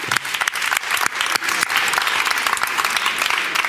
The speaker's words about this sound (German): Und das ist ein riesen, riesen Applaus wert erstmal.